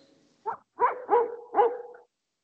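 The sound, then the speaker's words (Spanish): Dogs barking, four quick harsh barks in an uneven burst over about two seconds, fairly loud, with no voices in between. “Los que son tan, claros ladrando los perros, pues, weón.”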